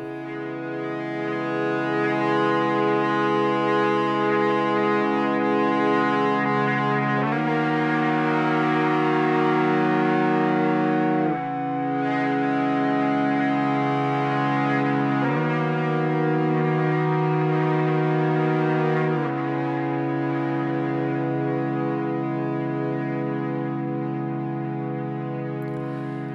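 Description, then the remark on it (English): Four layered EBow guitar parts, played together as the song's main chords, hold sustained, cello-like chords that swell and shift to a new chord every few seconds, played a little messy near the pickup for a swelling sound, loud and continuous with no voices. “There are four EBow parts which played together make up the main chords of the song.”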